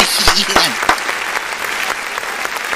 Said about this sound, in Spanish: Oye, de pie, de pie, de pie. Yo me paro de verdad, Un aplauso para el glorioso boy.